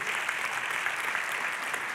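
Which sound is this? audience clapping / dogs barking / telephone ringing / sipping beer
audience clapping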